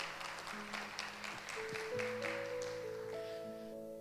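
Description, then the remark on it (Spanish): A crowd claps steadily for a family for about four seconds, a dense patter of hands over sustained keyboard or organ chords that shift upward in pitch as the applause fades slightly. “Un aplauso para esta familia poderosa.”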